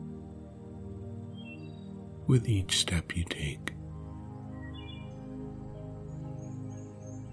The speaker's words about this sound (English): you may also notice all the birds in the trees and how happy they seem that winter is ended and spring is now well underway.